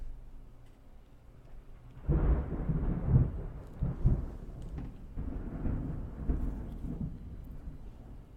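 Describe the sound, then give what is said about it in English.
A deep, rumbling roll of thunder bursts in after a quiet start and keeps growling and rolling for several seconds, loud, with low booming swells and no voices. “it's very distinctly thunder.”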